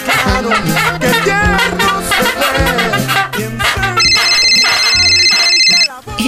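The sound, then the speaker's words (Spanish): A phone rings with a bright, steady electronic trill lasting about two seconds, sounding over busy background music and voices toward the end. “Pero recibió una llamada inesperada.”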